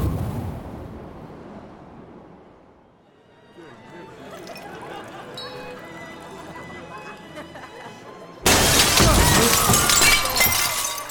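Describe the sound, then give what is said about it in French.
A dense clatter builds for several seconds, then glass suddenly shatters in a loud crash, with a bright, harsh burst of breaking fragments that rings on until the end. “Gwen, lui, devait sa douleur au bris de verre planté un peu partout sur son corps”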